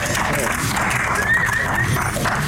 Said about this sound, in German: Dankeschön. Applaus. Danke, danke.